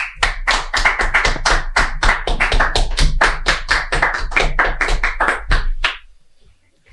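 Applause: brisk, steady clapping that keeps up a fairly even rhythm for about six seconds, then cuts off and leaves quiet. No voices are heard over it.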